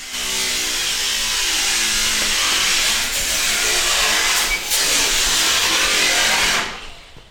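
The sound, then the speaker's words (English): Workers from a veteran-owned junk removal and hauling service cut up scrap metal for recycling indoors: a loud, steady high-pitched grinding whine of a power tool runs nonstop for several seconds, with brief sharp flares, then cuts off abruptly. “Back inside, we see and hear members of J Dog Junk Removal and Hauling cutting up metal to recycle.”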